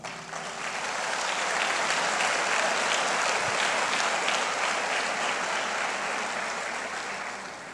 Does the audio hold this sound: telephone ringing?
no